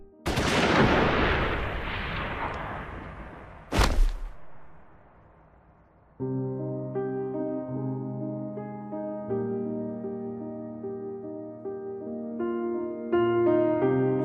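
A loud burst of gunfire from a firing squad volley executing a blindfolded man bound to a wooden post rings out and slowly fades, then a second sharp shot cracks; after its echo dies away, sustained music begins.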